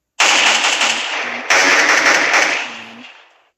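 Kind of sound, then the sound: sound effect, video game gunfire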